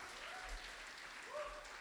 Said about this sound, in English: Are you with me? Or could we clap? Come on, give praise to God. Hallelujah.